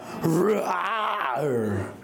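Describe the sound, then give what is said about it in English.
A group of voices imitates a lion's roar, a sustained, rising and falling growling yell lasting about two seconds, loud, with several people roaring together. “Okay, Lions of Judah, roar.”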